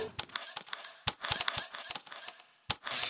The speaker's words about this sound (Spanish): La posición, encuadre de la cámara y el clic son determinados en un instante. Todo ejecutado por un imperfecto ser humano.